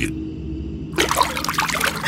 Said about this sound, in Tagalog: Kumuha din po siya ng planggana at nilagyan ito ng tubig.